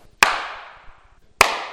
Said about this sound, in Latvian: Ja es tagad sastīšu plauksts, tad nebūs nekāda atbalsts, bet būs skaņas rimstoša tāda.